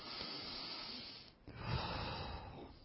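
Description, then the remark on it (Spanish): Steady rhythmic nasal breathing as a calming breathing exercise: a long hissy inhale through the nose, a brief pause holding the breath, then a fuller, louder exhale through the nose. No talking. “respiración rítmica por la nariz, inhala, retiene, bota el aire por la nariz y te quedas de nuevo sin respirar por otro proceso, te calma rápidamente”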